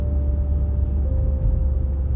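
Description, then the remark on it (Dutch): A steady, unbroken rumble of a car driving past a house, deep and loud throughout, with a faint constant whine riding above the road noise. No one speaks. “Ik rij nu automatisch gewoon langs mijn huis.”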